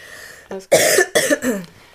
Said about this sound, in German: Entschuldigung, ich habe ja. total Husten.